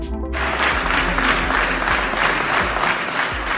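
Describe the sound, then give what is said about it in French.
Sustained applause from a crowd for the election victory of the Auréville citoyenne list on 28 June 2020, a dense wash of many hands clapping steadily at full volume for several seconds, with a few low thumps underneath and no voices standing out. “Très applaudi, la victoire de la liste Auréville citoyenne le 28 juin 2020 marquait aussi un changement d'étiquette politique et un changement d'atmosphère à l'hôtel de ville.”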